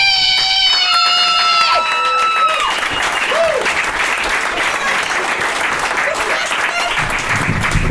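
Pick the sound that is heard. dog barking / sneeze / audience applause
audience applause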